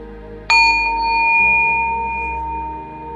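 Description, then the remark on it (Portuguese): A single meditation bell is struck once at the end of a meditation practice and rings out with clear, sustained tones that slowly fade over a few seconds, heard alone over a soft low background. “E quando estiver pronto, ao fim do som do sino, abra os olhos, trazendo a prática ao final.”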